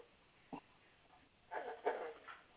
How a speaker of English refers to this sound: Yeah, I'm talking to you, but I got a dog opening my door, coming in barking at me. I have to mute right now.